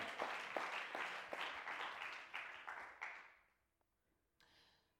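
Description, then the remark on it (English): An audience claps their hands to praise God in a dense burst of applause with sharp rhythmic accents, loud for about three seconds before fading out to near silence, with a faint brief rustle afterward. “Clap your hands and praise God for that.”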